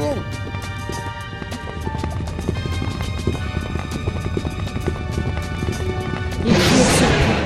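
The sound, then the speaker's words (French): Phalanx soldiers' footsteps approach in close ranks, marching in a steady, crisp rhythm of many sharp treads over a low rumble, until the loud, hissing roar of a jetpack propelling a jet of flame suddenly surges up and covers the final second. “Derrière moi, des pas s'approchaient, en rang serré.”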